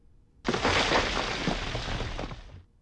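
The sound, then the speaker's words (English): A video game pit-spawning effect: a sudden, loud crumbling rush like breaking stone or shattering debris, holding steady for about two seconds before cutting off, with no voices. “Pit spawns.”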